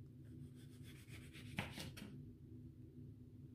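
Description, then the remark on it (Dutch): A knife cuts a lemon into thin slices on a wooden cutting board to make detox water: soft scraping strokes with a brief sharp tap midway, then the cutting fades out. No voices. “We starten met het snijden van onze citroen.”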